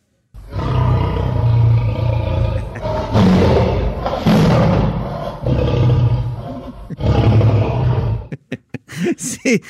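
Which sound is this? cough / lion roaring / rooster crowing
lion roaring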